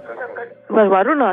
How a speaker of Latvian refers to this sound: Jā, jūs varētu vienīgi izslēgt ārā radioaparātu, nebūs tā atbalsta.